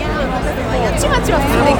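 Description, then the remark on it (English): Dense, steady babble of many overlapping voices from a large crowd the listener is walking through, a continuous murmur with no single clear speaker, holding at a fairly loud, even level throughout. “My probably one of my least favorite things when walking is large crowds with people pushing.”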